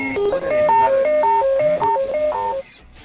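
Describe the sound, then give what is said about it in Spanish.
A phone alarm rings with a bright, repeating electronic melody of stepped tones, loud and steady for about two and a half seconds before cutting off, with no one talking over it. “Otra vez nos están Otra llamando. Otra vez la alarma del orto, boludo.”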